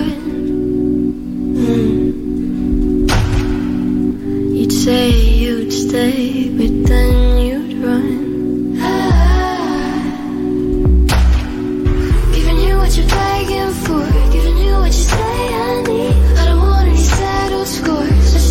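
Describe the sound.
A slow pop song with a soft, breathy female voice singing over steady low bass and sustained keys, playing continuously at a moderate, even level with no talking over it.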